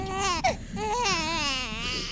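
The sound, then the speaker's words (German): A newborn infant wails at night, shortly after birth, in long, strained cries with a wavering pitch, loud, continuing without pause. A short catch in the breath breaks the crying once near the start. “die beiden sind wach, weil das Kind … schreit”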